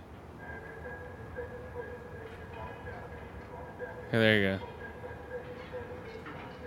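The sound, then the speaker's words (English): Steady low rumble of train station ambience, with a short, loud horn-like blast near the end as a train passes. A person says a few words briefly over it. “Meet in a train station.”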